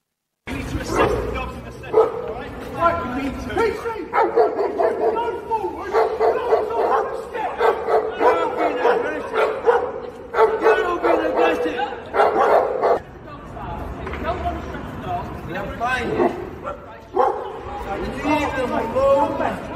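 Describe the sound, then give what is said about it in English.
Dogs bark repeatedly and agitatedly amid a tense jumble of overlapping shouting voices, screaming witnesses and commotion during a police incident in Tower Hamlets, London, in which a suspect with a dog was tasered and two dogs were shot, with occasional yips and whimpers throughout. “Police attended, and a suspect with the dog was tasered, and two dogs shot in front of screaming witnesses.”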